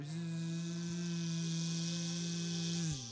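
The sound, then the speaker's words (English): A steady, low engine hum of a vehicle approaching with headlights through moon dust at Vergesso drones on without a break, holding one pitch before dipping slightly at the very end. It is fairly loud, with no voices. “It's it's got a kind of a, a, a kind of low hum to its engine”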